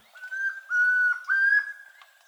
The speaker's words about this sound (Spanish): El trino del tororo y comprapán forma parte del Banco de Sonidos de Aves Colombianas, recopilado por el Instituto von Humboldt y la Universidad de Cornell.